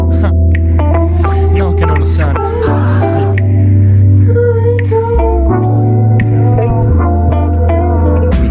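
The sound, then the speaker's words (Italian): A mellow ambient instrumental type beat plays steadily in the background, fairly loud, with deep sustained bass notes that shift every few seconds beneath layered, gently wavering melodic tones. “Tengo in sottofondo questo, questa strumentale perché spacca, è molto bella e quando l'ho ascoltata in macchina mi sono gasato, quindi vi confermo il fatto che questo type beat è molto figo, è molto figo, è molto ambient, e ci sta come outro”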